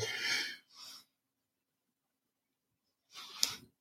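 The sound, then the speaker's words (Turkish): A breathy yawn: a long airy inhale followed by a shorter exhale, a pause of silence, then another drawn-out breathy exhalation, with no talking. “bu arada esnedip özür dilerim.”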